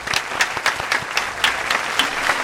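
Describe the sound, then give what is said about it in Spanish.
Audience applause welcoming a former Operación Triunfo 2020 contestant, a steady wash of clapping with sharper individual claps standing out irregularly throughout, sustained at an even, moderately loud level with no voices. “Nuestra triunfita favorita, un aplauso”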